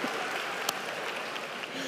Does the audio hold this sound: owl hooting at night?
no